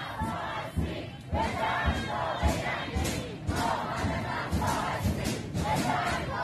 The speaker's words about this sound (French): On entend surtout les slogans contre le système islamique, contre les dirigeants.